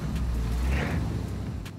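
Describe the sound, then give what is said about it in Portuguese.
A voice imitates a car pulling away, with a low, rumbling engine-like drone that swells briefly and then tapers off over about two seconds, fairly loud. “Cara, Você vai saindo. Onomatopeias.”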